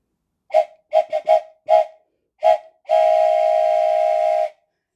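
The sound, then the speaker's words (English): A steam train whistle sounds in a series of short, sharp toots followed by one long, steady blast, loud with no voices. “Let's take a train ride together.”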